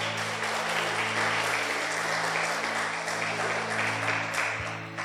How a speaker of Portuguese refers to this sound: Aplauda o Senhor por isso, amados.